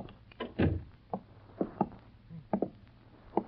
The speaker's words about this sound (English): Shut the door.